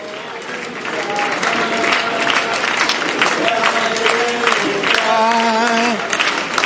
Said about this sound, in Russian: Встречайте их вашими аплодисментами.